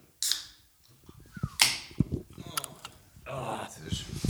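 A bottle of Born in the Wetterau Apfelwein (apple cider) is opened with two sharp cracking bursts and some clinking, then a steady hissing, gurgling pour fills the last second or so, moderately loud with no talking; it is being opened to taste live on air.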